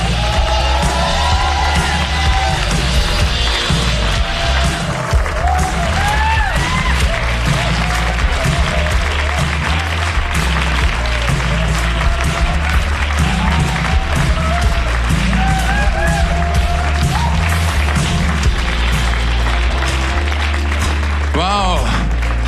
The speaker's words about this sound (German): Bitte begrüßt mit einem feurigen, eifrigen und warmen Applaus